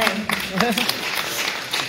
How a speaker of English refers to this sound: Ooh, you want to clap for that one? Yes.